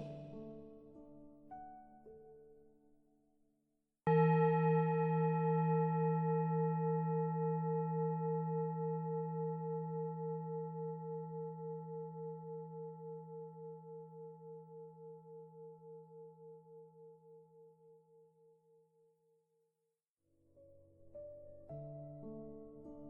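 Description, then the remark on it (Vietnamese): A mindfulness bell is struck once with a clear attack, then rings out in a long, pure, shimmering tone that slowly fades over about fifteen seconds, framed by soft tonal sounds before and after, as listeners breathe along with the bell during meditation. “bây giờ chúng ta cùng thở với tiếng chuông và quan sát những hạt cát từ từ lắng xuống đáy bình”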